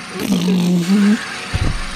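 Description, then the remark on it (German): A steady motor drone from an electric lawnmower hums for about a second with a slightly wavering pitch, then gives way to a low rumbling thump at the end. “Das hört sich an wie so ein Traktor. Ja. Das ist so ein elektrischer.”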